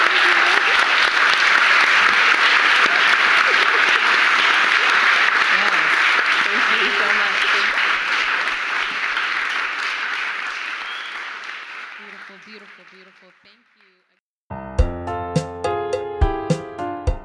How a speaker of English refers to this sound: So, thank you. And with that, another round of applause, please.